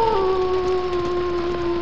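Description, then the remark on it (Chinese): A grey wolf in a forest howls in one long, steady, mid-pitched note that dips briefly at the start and then holds level throughout, over a constant hiss of background noise, with no voices. “一只大灰狼正瞪着通红的双眼，张着血盆大口向我们逼近。”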